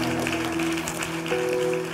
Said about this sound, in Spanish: Gloria a Dios, aplaude, aplaude y celebra. Gracias Dios.